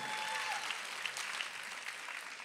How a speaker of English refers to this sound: Anybody excited that we're in the greatest city in the whole world, the city of Los Angeles, California? Come on, clap if you love that great city.